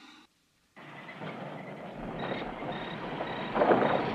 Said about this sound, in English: The bus.